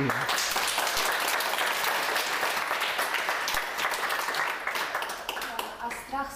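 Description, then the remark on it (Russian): Steady audience applause, dense and continuous, with many hands clapping at once before it begins to thin out toward the end; a voice briefly emerges as it fades. “Ну так хлопайте.”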